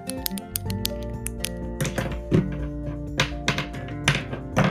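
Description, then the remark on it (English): A pen being clicked and tapped at a microphone connected to an audio interface, in a quick, irregular series of sharp, bright knocks and clicks, some louder thuds among them, over a steady low tonal hum with no talking. “I'm about to click the mic. You can literally hear me. Click stuff.”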